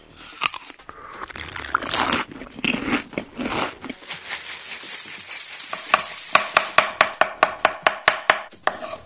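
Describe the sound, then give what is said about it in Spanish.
Crunching and biting of crisp Mexican food at Carajillo Café: irregular crackly bites at first, then a quick, steady run of sharp crunchy snaps toward the end. No one speaks. “Ahora, la comida también se escucha.”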